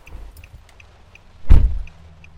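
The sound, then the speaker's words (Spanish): A car door slams shut with one solid thump partway through as a woman gets into the back seat, set against a low engine rumble and a faint, steady ticking. No one speaks. “En cuanto cerró la puerta me dijo, Hijo, dale rápido.”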